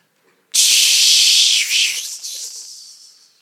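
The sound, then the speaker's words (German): A voice imitates a sizzle of hot coal on lips: a loud, steady, high-pitched hiss that starts abruptly, holds for about three seconds with a brief dip, then gradually tapers off. “Und dann, während diese Engel das, diese Kohle auf seinen Mund Boah, ich bin mir, es hat bestimmt dieses Geräusch gemacht.”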